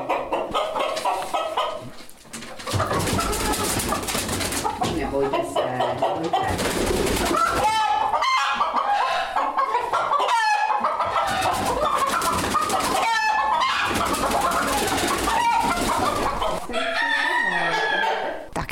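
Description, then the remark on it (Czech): Several partridge-coloured chickens cluck and squawk continuously, with a rooster crowing; the rooster has a full black breast without golden markings. A loud, busy barnyard chorus with no talking. “Kohout má plná černá prsa, nemá tam na nich eh, zlatou kresbu.”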